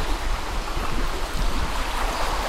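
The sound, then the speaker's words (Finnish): Small river rapids about 15 metres long on the Kukkasjoki river, beside the stone foundation of an old mill, rush steadily: a dense, continuous roar of churning water with a low rumble underneath. No voices, just the constant loud wash of the stream. “Tuossa on ihan sellainen pieni koski, jos sitä nyt koskeksi voi sanoa. Ehkä voi, kun se pitää tollasta ääntä.”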